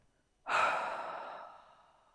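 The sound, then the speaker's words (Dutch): A single forceful exhale through the mouth, blown as hard as possible during a guided breathing meditation, loud, starting abruptly with a strong breathy rush and then tapering off gradually over about a second and a half. “blaas zo hard mogelijk uit door je mond.”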